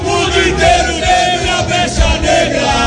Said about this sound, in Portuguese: a festa dos torcedores do Cruzeiro aqui no bar do Santa Teresa.